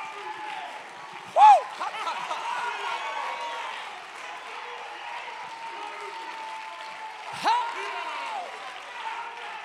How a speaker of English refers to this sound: we hear you shouting unto God, stomping your feet, giving God the praise, but it wasn't always that way.